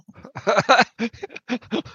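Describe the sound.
A person imitates an animal howl with a string of short, choppy yelping bursts, loud, the rhythm quickening and then trailing off into breathy, panting sounds.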